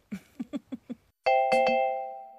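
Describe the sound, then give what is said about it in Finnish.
Five quick, even taps sound first, then a loud doorbell rings, its bright two-strike chime sustaining and slowly fading. No voices are heard. “Et ehkä hyvä, jos, tota, jos luulee, että naapuri on kuollut, niin vaikka soittaa ovikelloa ihan Ensin, eka.”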